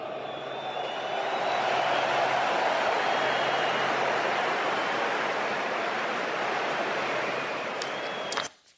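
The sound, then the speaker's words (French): A huge stadium crowd in France applauds all the teams of the Rugby World Cup in a dense, continuous roar of clapping that holds steady for several seconds, then cuts off abruptly. “Et je vous propose d'applaudir toutes les équipes ensemble.”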